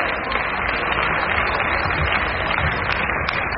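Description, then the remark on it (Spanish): Loud, sustained audience applause for three people called up to the front, mixed with cheering and shouting voices, a dense wash of clapping that stays steady in volume for the whole few seconds. “se cansó de aplaudir, ya se cansó de gritar”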